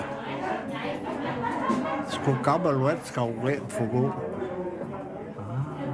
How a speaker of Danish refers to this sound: Nu står de alle sammen i rundkreds med hænderne. Ja. Hvorfor det? Så prøv at høre. Så spiller de. Der er en gammel skotsk folkmelodi.